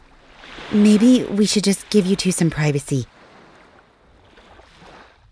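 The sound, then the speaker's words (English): Soft waves of the open ocean wash steadily around a boat, a faint continuous murmur of water that sits under a brief stretch of speech and carries on quietly once the talking stops. “And being out here in the open ocean with all this fresh air should definitely help him.”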